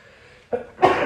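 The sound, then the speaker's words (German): A single sneeze: a short sharp intake of breath, then a loud, breathy explosive burst that rings on briefly, following a near-silent moment. No one speaks. “Gesundheit.”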